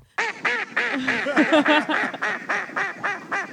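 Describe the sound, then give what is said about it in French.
A duck quacks loudly and rapidly, a dense run of about a dozen nasal, raspy quacks in quick succession, with no voices. “C'est le canard de l'humour, c'est quoi ouais.”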